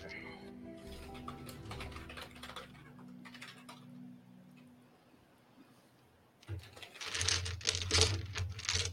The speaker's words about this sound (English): let me get my favorite dice out for this.